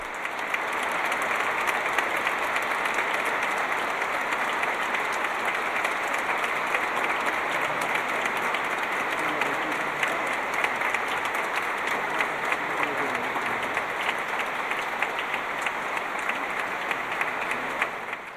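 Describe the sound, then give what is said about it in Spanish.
Sustained applause from a large crowd fills a reverberant cathedral as those present welcome don José taking his seat, steady and dense for the whole stretch, with many hands clapping at once and no voices standing out. “Ahora mismo se sienta don José y como podéis escuchar acogido por el aplauso de los presentes.”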